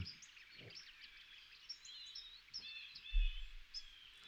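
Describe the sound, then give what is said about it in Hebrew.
Many small birds on a farm chirp and twitter continuously, overlapping high calls forming an outdoor chorus, with occasional low rumbles and a brief thump underneath. “אז הנה יש לנו את הציפורים של החווה ככה ברקע, אפשר להתמקם, לעצום עיניים.”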